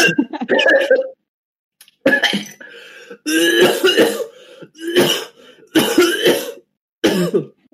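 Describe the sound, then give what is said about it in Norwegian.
A person coughs repeatedly and harshly onto another person, several loud, raspy bursts separated by short pauses, with some throat clearing mixed in. “hoster … tjener på meg”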